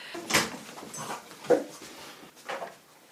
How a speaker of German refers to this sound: falls ihr euch wundert, warum es laut im Hintergrund hechelt, das ist kein Perverser. Das ist einfach nur mein Hund, der sich immer sehr freut